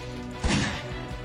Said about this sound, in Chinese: 一声枪响，段子明猛后退一步。枪声是从运钞车的车头传来的